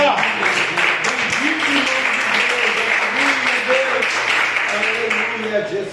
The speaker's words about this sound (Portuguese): Essa é a palavra que o Senhor colocou no meu coração e as palmas que glorificam o Senhor Jesus nessa noite.